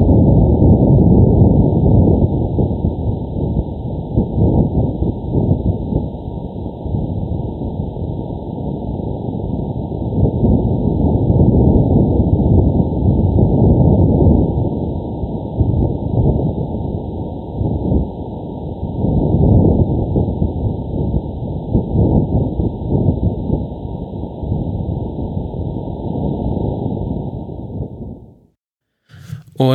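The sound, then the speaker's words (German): Wind on Mars picked up by a rover microphone: a muffled, low rumbling roar that swells and fades in gusts, with a faint steady high whine above it. No voices; it cuts off abruptly near the end. “Und ähm, ja, das war der Wind des Marses.”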